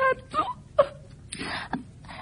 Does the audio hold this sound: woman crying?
yes